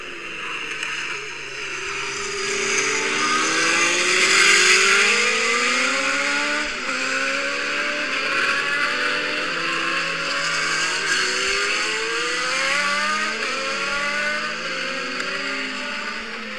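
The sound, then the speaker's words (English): A few Formula One cars from the 1980s to 1990s rev and drone continuously in Adelaide, their pitch rising and falling as they accelerate and circle around, fairly loud with a busy outdoor roar and no talking. “You enjoyed all the cars and the One going around.”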